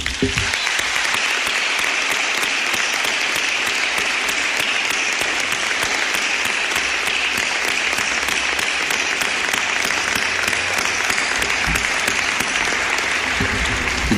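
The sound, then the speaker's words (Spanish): Sustained applause from an audience for the 33 boys and girls of the COI, a dense, steady wash of many hands clapping at an even loudness for the whole stretch, with no voices standing out. “Y voy a pedirles nuevamente un aplauso para ellos.”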